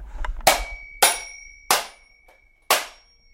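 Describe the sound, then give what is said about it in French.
A small hammer strikes a mechanical alarm clock four times at uneven intervals, breaking it into two parts. Each sharp metallic crack leaves a high, bright ringing tone that hangs between blows. No one speaks. “Grâce à ce petit marteau, nous voici avec deux temps.”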